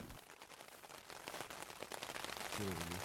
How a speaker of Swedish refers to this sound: Idag ska vi till Obdano, men eh, det regnar just nu så det är inte så kul faktiskt. Men det är visserligen tidigt på morgonen så jag hoppas att, att det ska sluta snart